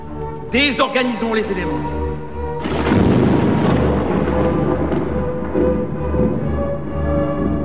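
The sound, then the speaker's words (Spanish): A voice sings briefly in an opera recording, then a loud, sustained roll of rumbling thunder, a sound effect, breaks in and continues steadily to the end, deep and washing over everything. “Y ahora desatemos los elementos, menciona, y de inmediato se ennegrece el cielo y del mismo surge una serie de estremecedores truenos.”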